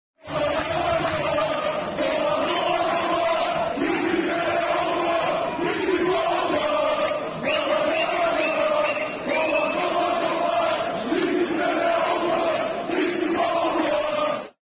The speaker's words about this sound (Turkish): Önceki gün Fenerbahçe Konya spor maçında sarı lacivertli taraftarlar deprem nedeniyle hükümeti istifaya çağırdı. Tribünlerden yalan yalan yalan, dolan dolan dolan tezahüratı duyuldu.